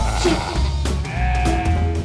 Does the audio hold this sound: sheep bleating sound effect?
yes